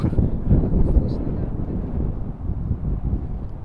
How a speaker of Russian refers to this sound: а, сейчас ветер продует, прям ветер с моря дул, ветер с моря дул.